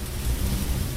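Freshwater eel sizzling on a hot grill at high heat in a shop that sells grilled eel to take home, a steady, dense crackling hiss with a low rumble underneath, fairly loud, continuing evenly throughout with no voices.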